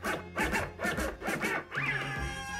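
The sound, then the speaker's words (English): A zipper on a kit bag is pulled open in a few quick, rasping strokes, each a short scratchy burst, followed by a steadier sustained tone as the sound continues. “Okay, so let's open the podcast kit and see who's inside.”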